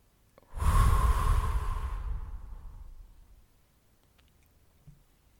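A single deep breath, held for three seconds during a breathing exercise, is released in a long, airy exhale that starts strongly and fades gradually over about two seconds, followed by quiet.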